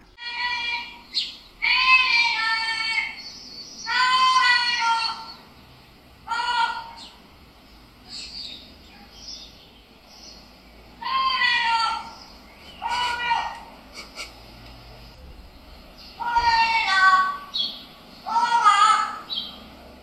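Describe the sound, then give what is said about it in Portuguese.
A parrot that has just learned to talk mimics human speech in short bursts of high, nasal, warbling syllables, separated by pauses, clear with faint background noise beneath. “Hoje deu-se conta que o que até agora, ao ouvir o que lhe parecia ser um vizinho com um bebê ou uma criança com alguma deficiência cognitiva, era afinal um papagaio que ainda não tinha aprendido a falar. E aprendeu hoje a dizer”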